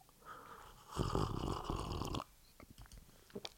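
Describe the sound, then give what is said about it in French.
A single drawn-out slurp lasting about a second, rough and breathy, as someone takes a sip of tea, followed by a few soft clicks and mouth sounds. No one speaks. “Voilà, cette euh, gorgée de thé était à la fois pour ménager ma gorge et ménager le suspense qui va avec l'annonce de la composition de ce nouveau trio.”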